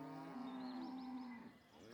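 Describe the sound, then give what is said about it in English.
A single long, loud moo from a cow on a farm, a sustained low bellow with a steady pitch that swells and then tails off, with no voices. “At Burl Farm, we spend a lot of time with cows.”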